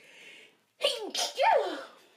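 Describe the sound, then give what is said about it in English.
A single loud sneeze: a quick gasping build-up, then a sharp, breathy burst with a voiced, drawn-out ending, heard on its own without talking. “Well, you know, I gotta sneeze.”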